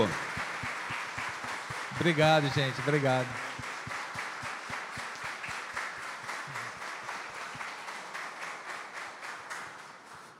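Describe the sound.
An audience applauds a man steadily for the whole stretch, a dense, even patter of many hands clapping, with a voice briefly speaking over it at the start before the clapping carries on.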